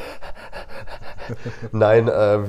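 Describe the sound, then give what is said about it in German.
A climbing dog pants quickly and rhythmically right up close to the microphone, a steady run of short breathy puffs, before a person laughs and starts talking over it. “Ich glaube, die hat auch gerade ein bisschen ins Mikrofon reingeröchelt die ganze Zeit.”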